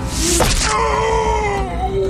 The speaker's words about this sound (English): It reeled back and screamed an agonizing wail, and even its scream was human. The scream was somehow familiar. It was hoarse and cranky, like the shout of someone who smoked far too much.